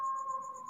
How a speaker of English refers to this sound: That was my doorbell.